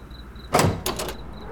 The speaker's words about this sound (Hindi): दरवाजा खोलो मैं आ गया हूं